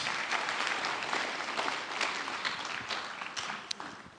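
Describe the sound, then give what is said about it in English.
A steady wash of audience applause, many hands clapping in a dense, continuous patter that stays fairly even in loudness throughout, with a few sharper individual claps standing out near the end. “Can we give him an a round of a, round of applause?”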